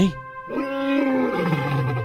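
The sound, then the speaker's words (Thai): A lion lets out an angry roar, one loud, sustained growl that swells after a brief pause and holds for over a second with no talking. “สิงโตได้คำรามด้วยความโกรธ”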